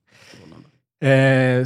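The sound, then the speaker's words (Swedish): A yawn: a breathy, airy inhale slides into a loud, drawn-out voiced groan that holds steady and then cuts off. No one is talking. “så ska jag gäspa mindre.”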